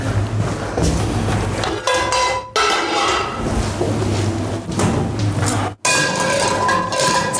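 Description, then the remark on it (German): A frying pan is pulled out and set down amid a steady jumble of metallic clattering and clinking of cookware, fairly loud, with a couple of brief pauses. “So, eine Pfanne holen.”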